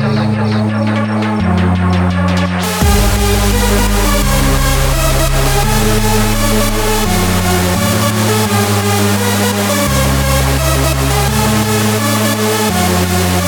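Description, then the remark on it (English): Loud, dense electronic rave music plays continuously, starting with a brief buildup before a heavy bass line drops in under pounding beats and bright synths. “the music is, it sounds like this.”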